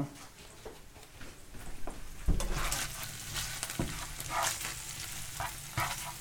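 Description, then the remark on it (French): Lardons sizzle and crackle steadily in a hot pan over low heat, with a few sharp scraping knocks as a utensil stirs them around; no one speaks. “Donc justement, alors aussi le truc, c'est que pendant que vous coupez les choses, n'oubliez pas d'aller remuer les choses qui sont en train de cuire.”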